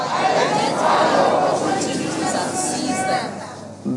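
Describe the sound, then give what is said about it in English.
An audience of many voices repeating a phrase to their neighbors at once, a dense, steady murmur of overlapping speech for several seconds at fairly loud level. “Say to your neighbor, identify your opportunities and seize them.”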